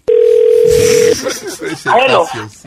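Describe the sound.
A steady, loud telephone dial tone holds a single low pitch for about a second as a call is placed to a salon, then cuts off as people begin talking over the line.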